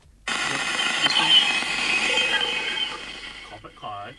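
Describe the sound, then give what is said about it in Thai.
An eerie NASA space recording of Ganymede, Jupiter's largest moon, rendered as sound: a dense wash of static-like hiss with faint warbling electronic tones for about three seconds, then a voice begins right at the end. “อันนี้คือเสียงของดวงจันทร์ที่ใหญ่ที่สุดของดาวพฤหัสไว้พี่มันชื่อว่าดวงจันทร์แกนิมีดอันนี้ผมไม่แน่ใจว่าอ่านถูกไหมนะครับ”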